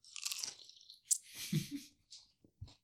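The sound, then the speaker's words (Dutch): A crisp crunch as someone bites into a vodka-soaked pickle, followed by a few wet chewing sounds and soft squelches. No talking. “Nou, ik neem eens dus een hap van mijn augurk.”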